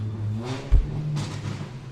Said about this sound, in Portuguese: Olha a moto, olha a moto. Ui. É, olha a moto.